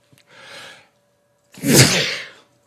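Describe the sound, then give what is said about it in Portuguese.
A single loud sneeze: a breathy intake first, a short pause, then a forceful explosive burst. No one speaks. “Com esse espirro, encerramos o Jornal do Boris de hoje.”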